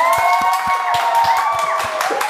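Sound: audience applause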